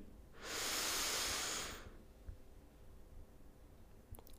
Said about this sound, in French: À mon signal, vous inspirerez en gonflant votre ventre, vous retiendrez votre respiration et inscrirez ces ressentis dans votre tête. Puis, vous soufflerez doucement pour les diffuser en vous. Inspirez